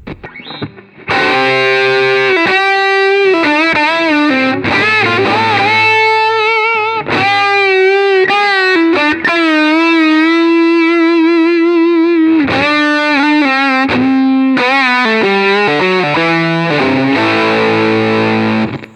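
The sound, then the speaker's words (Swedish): Electric guitar played through a fuzz pedal plays sustained, buzzing single-string lines and bends, thick with harmonics and steady in loudness throughout, with brief pauses between phrases and no voices. “Får man testa med, eh, om man skulle vilja ha mer eh, fuss?”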